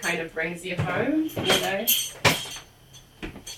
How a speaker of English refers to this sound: what I'm about to do is just put in a spoon in the Prosecco to keep it fizzy.